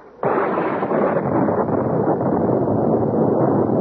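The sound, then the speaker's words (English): A sudden, loud thunderclap in a storm with streaming rain bursts in after a brief quiet, then rolls on as a heavy, sustained roar of rumbling noise that barely fades, with no voices. “I came awake, my head ringing with the force of the thunderclap.”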